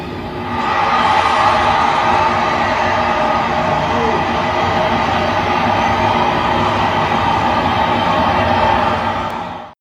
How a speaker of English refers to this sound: it sounds like artificial crowd noise, which it is, but yeah, it, but it not, sounds very not blatant. A baseball crowd, but not yeah. a baseball crowd.